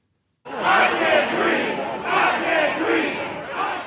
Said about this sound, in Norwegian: Rasende demonstranter roper ut det som var Eric Garners siste ord Flere tusen mennesker demonstrerte i natt i New Yorks gater etter storjuryens beslutning om å ikke tiltale politimannen som brukte det dødelige nakkegrepet.